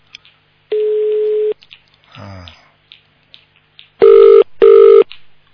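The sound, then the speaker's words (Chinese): Telephone line tones on a call during a broadcast program: a steady mid-pitched tone lasting under a second, then after a pause two louder, buzzier beeps in quick succession, with a brief murmured voice between. “什么烂电话？你是电话局啊？”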